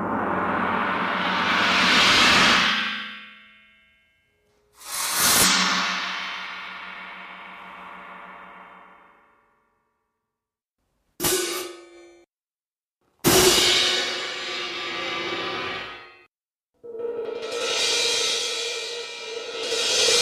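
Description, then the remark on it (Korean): An orchestral gong and cymbals are struck about five separate times, each crash ringing out and slowly fading into silence; one hit is choked off short. Loud, with no voices. “공과 심벌의 소리였습니다.”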